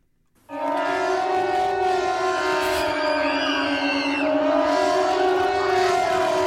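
An older pneumatic civil defense siren in Zürich-Seebach howls loudly, ten different horns driven by compressed air forming a steady chord that kicks in abruptly and holds for about six seconds, with no voices.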